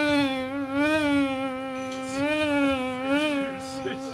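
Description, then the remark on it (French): A human voice imitates a bee with a steady, nasal buzzing hum that wavers slightly in pitch, sustained for about four seconds, moderately loud, with no words spoken. “Pardonnez-moi, je n'ai que des notions d'abeille LV3.”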